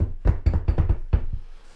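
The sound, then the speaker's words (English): Around six quick knocks on a wooden surface, knocked for luck, fairly loud, in a loose rapid rhythm with no talking. “because everything will go back to normal this week, hopefully. Knock on wood.”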